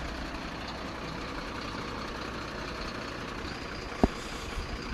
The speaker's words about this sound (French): C'est la pesée en fait, chaque camion est pesé en entrée et en sortie. Et comme ça, on connaît exactement le, tonnage du camion, enfin, des, produits qui sont dans le camion.